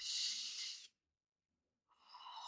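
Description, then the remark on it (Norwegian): A long, airy breath drawn deep in through the belly, then a second of silence before another breathy rush of air begins, with no talking. “Så vi tar et felles åndedrag nå, folkens.”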